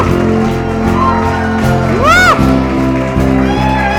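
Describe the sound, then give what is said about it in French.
An audience claps and cheers for God in a loud, continuous wash of noise, with one voice letting out a high rising-and-falling whoop midway while steady low music sustains underneath. “Et est-ce qu'on peut applaudir notre Dieu qui a un plan que pour nous élever sur le trône?”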